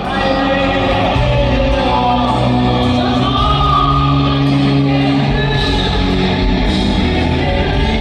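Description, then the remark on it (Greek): A large stadium crowd of about 30,000 people in the opposite stands roars and shouts continuously, with sustained massed voices and whoops swelling and blending into a dense, loud wall of sound for the whole stretch. “Ο ήχος που ακούτε είναι από τις απέναντι κερκίδες”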